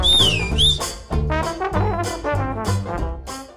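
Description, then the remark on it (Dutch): A loud, shrill finger whistle rings out at the start, a single piercing note that dips and rises again in under a second, then gives way to busy, layered tonal sounds. “I, I, I, eh, I fluit een keer op de vingers.”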